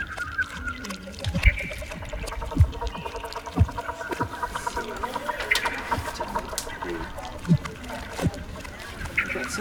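A busy chorus of waterfowl, including cinnamon teals and coots, on a pond, with clucking, honking and chattering calls overlapping constantly. Sharp calls ring out over a dense wash of other birds.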